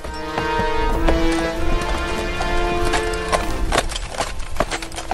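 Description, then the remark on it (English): Horse hooves gallop in a quick, steady clatter of hoofbeats, fairly loud, over a sustained tonal backdrop that runs throughout: Anna's horses running off through the snow back to Arendelle after throwing her. “As Anna rode through the fierce wind, her horses threw her into the snow and ran off back to Arendelle.”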